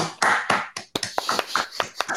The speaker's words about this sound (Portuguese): Palmas para mim.